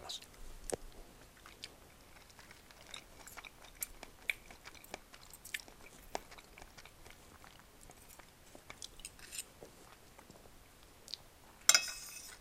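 Soft, wet chewing and slurping while eating spaghetti, an irregular run of quiet smacks and clicks with brief pauses, ending in a short louder burst of rustle.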